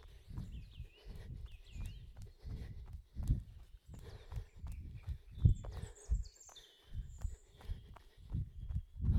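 Several birds chirp and sing outdoors, their light whistles scattered over steady, rhythmic footfalls thudding along at a walking pace.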